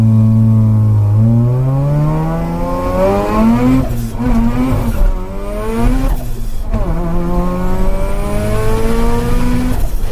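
A Formula 1 race car engine screams loudly as it accelerates, its pitch climbing and dropping with several quick gear shifts over about ten seconds, with no talking.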